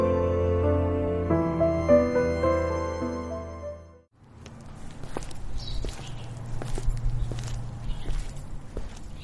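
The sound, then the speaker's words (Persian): A short melodic music passage ends abruptly, followed by slow, evenly spaced footsteps of a young woman walking at a steady, unhurried but determined pace over a low background hum. “به آرامی اما مصمم داره قدم میزنه”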